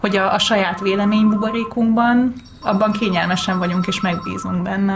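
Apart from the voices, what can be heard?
telephone ringing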